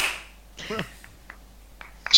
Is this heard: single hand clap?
yes